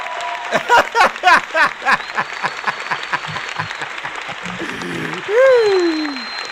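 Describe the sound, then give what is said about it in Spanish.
Steady applause from a crowd, with cheers and whoops rising over the clapping at first, then a long sliding whistle-like tone near the end. “un aplauso para mí.”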